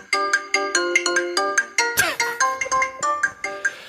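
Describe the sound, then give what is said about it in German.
A bright electronic phone ringtone melody plays alone, a quick run of clear synthetic notes in a steady bouncy rhythm with a brief swooping flourish midway, loud. “Okay, ich merke mir den Ton Kung Fu.”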